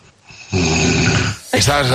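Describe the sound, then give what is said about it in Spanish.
A person imitates a loud snore in two parts: a long rasping inhale-like rattle, a brief pause, then a second shorter, higher snort. “Uf, es un ronquido doble.”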